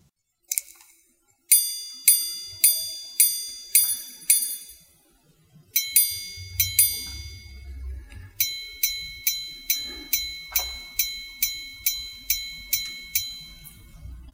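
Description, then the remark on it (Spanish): The activated minute repeater of a mechanical Curvex wristwatch sounds in three bursts of bright, evenly spaced metallic strikes about half a second apart, each ringing briefly, with faint handling rumble underneath and no talking. “Sí, es que este tipo de relojes hay que, hay que, hay que experimentarlos alguna vez, por lo menos”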